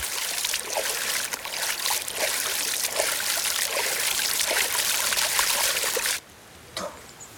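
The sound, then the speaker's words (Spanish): Water splashing as a little girl lying face down at a river's edge splashes with her hands and kicks her legs, with irregular small splashes over a steady watery rush that cuts off abruptly near the end, leaving a quieter splash or two. “Moja los dedos, Marguerite observa encantada cómo la niña salpica con las manos y agita las piernas entusiasmada.”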